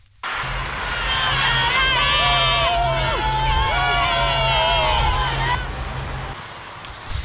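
A stadium crowd of about 11,000 primary and middle school children, the only spectators allowed, cheering and shouting at an Inter versus Sassuolo football match, high-pitched voices layered into a continuous roar that swells and holds for several seconds before fading.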